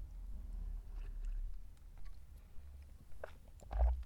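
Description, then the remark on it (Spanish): Quiet mouth sounds of someone taking a sip of coffee, with a soft slurp and swallow near the end over a low background rumble; no one speaks. “para trago de café.”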